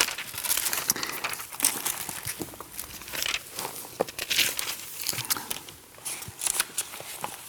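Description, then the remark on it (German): Thin paper pages of a Bible being leafed through to Deuteronomy chapter 6, a run of soft rustles and crisp crinkling flips, with no voices. “Wir können mal den Text gerade aufschlagen, weil ich den ähm, ganz, mhm.”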